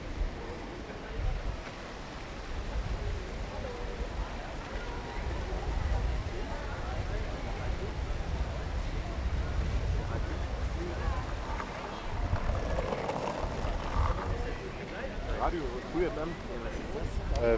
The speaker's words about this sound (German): Wir lassen jetzt hier einfach mal den Sound wirken von shoppenden Menschen.